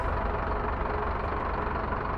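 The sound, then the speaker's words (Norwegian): A large bus engine idles steadily, a low continuous rumble with a faint rattling texture and no other sounds on top; the bus goes nonstop directly to Sweden. “Sleng dine trasige sko på bordet og gikk det en folköl, for denne bussen går nonstop direkte til Sverige.”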